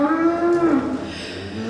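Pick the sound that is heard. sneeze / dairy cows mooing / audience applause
dairy cows mooing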